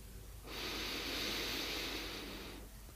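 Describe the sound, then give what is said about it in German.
A single long, deep breath drawn in through the nose during a guided breathing exercise, a steady airy hiss lasting about two seconds, with no talking. “Wir atmen ein.”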